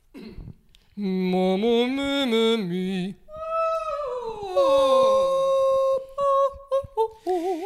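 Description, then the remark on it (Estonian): Singers run through vocal warm-up exercises, holding sustained tones that slide and step up and down the scale, ending in short repeated notes. The voices are fairly loud, with no speech. “no siis teil on aegu praegult nii, nüüd me saame kuulata kolmkümmend sekundit, kuidas lauljad laulavad häält lahti”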